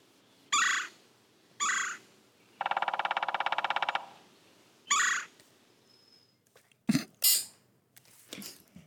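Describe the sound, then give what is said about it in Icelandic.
A woodpecker hammers out a fast, even burst of pecks lasting about a second and a half, with sharp bird calls before and after, clear, with no talking. “Spæta. Spæta er líka bara alveg hárið rétt.”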